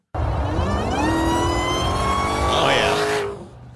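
A Hellcat car engine revs hard with a high, rising supercharger whine layered over the deep engine roar, loud, climbing steadily for a few seconds before cutting off abruptly.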